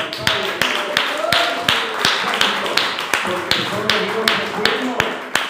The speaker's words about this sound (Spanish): fuerte aplauso.